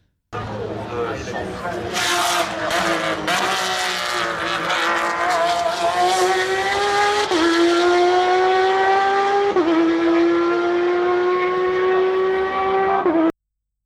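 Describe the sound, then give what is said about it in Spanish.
A Porsche 911 GTE Pro race car engine screams loudly and continuously, its pitch climbing steadily and dropping briefly at each upshift as it passes the grandstand through the Ford curves and accelerates hard down the start straight. “Eso era un Porsche 911 GT e Pro. Pasando por, por delante de, la, de vuestra tribuna.”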